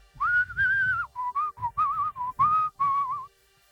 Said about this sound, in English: I walked around the place whistling show tunes.